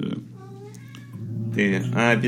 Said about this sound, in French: On t'en veut pas de pas reconnaître les, les chats